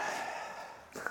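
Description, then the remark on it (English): A breathy sniffle through the nose, one drawn-out inhale lasting about a second, followed by a brief, softer nasal catch at the end. “Sniffle time.”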